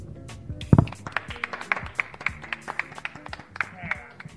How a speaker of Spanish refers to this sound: Un aplauso.